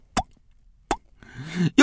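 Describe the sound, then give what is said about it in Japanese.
A voice imitates the LINE app's message notification sound with two quick mouth pops spaced under a second apart, followed by a brief burst of voiced, sing-song vocalizing. “そのおじさん見てたら LINE が来れんだよつってなんで LINE 帰ってこねえのかなつってでずっとあの LINE のあの通知音の音真似してるんですよ”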